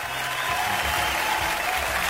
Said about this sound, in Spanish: Gracias, los aplausos. Usted está loco quería mis aplausos.